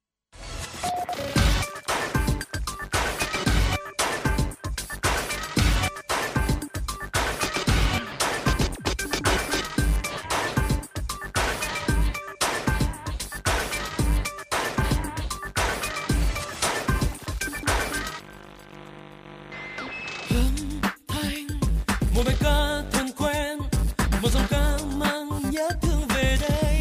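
An instrumental song intro with a steady driving beat of sharp percussive hits over sustained tones; it thins briefly to a quieter, sparser passage, then surges back at full volume without vocals.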